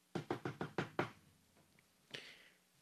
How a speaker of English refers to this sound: And then all of a sudden, he knocked on the door.